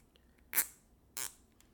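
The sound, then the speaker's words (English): Two short, crisp plastic rustles a half-second apart as zip ties are picked up and handled to get them ready, with quiet in between and no talking. “Let me get my zip ties ready.”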